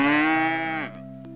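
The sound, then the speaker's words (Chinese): A single long, loud cow moo with a steady low pitch that drops and fades at the end, followed by a brief quieter tail; no talking. “一头强壮的黄牛在东山头称霸。”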